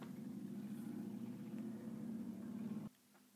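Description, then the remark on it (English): A motorcycle passing by outside drones steadily, a low rumbling hum holding at a constant level for a few seconds before cutting off abruptly into near silence. “I'm sorry, there is a motorcycle going by.”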